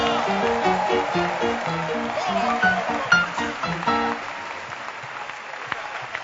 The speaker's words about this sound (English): We are having Art of Shepherding Conference 2018. Clap your hands for Jesus.